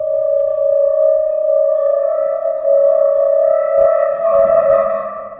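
A Cristal Baschet, an instrument combining water, glass and metal, sounds one steady, sustained tone as its glass rods are rubbed with wet hands, giving a bright, eerie, slightly wavering hum with shimmering overtones. It plays alone, fairly loud, for the whole stretch, in a studio.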